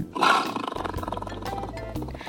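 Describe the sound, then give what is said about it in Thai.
A tigon, a hybrid big cat with a tiger father and a lion mother, lets out a deep, rumbling roar, loud, swelling at the start and then rolling on in a throaty growl for a couple of seconds. No one speaks. “ไทกอนมาจากพ่อที่เป็นไทเกอร์ นั่นก็คือเสือโครง่ง แล้วก็แม่ที่เป็นไลออน นั่นก็คือสิงโต ลูกออกมาเลยกลายเป็นไทกอน”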